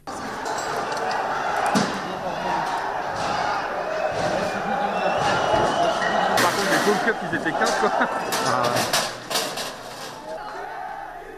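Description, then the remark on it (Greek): A street clash in central Paris near the Kurdish cultural centre, with police using tear gas to disperse Kurdish protesters amid fires: a loud, chaotic crowd shouting continuously, punctuated by sharp bangs and clattering impacts at irregular intervals, with several harsh cracks near the end. “φωτιές και συγκρούσεις στους δρόμους αλλά και πολλούς τραυματίες αστυνομικούς.”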